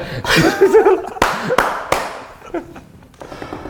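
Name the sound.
hosts clapping hands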